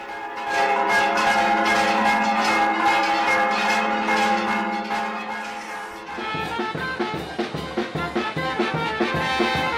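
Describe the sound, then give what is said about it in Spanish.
Church bells ring out loudly and continuously, their overlapping metallic tones forming a dense, sustained peal that shifts to quicker, more rhythmic strikes partway through, with no voices present; rung at one in the afternoon to open the Corpus procession, a religious festival in Iztacalco. “Por lo general comienza a la una de la tarde con el lanzamiento de cohetones y campanas al vuelo.”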